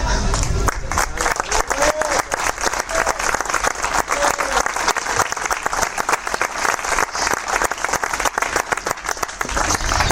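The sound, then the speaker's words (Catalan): Sustained applause from a large audience fills the room, dense rapid clapping at a steady loud level throughout, with a few faint voices and cheers mixed in. “seguir aplaudiendo, seguir aplaudiendo.”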